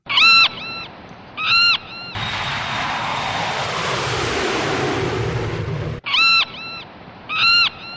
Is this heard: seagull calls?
yes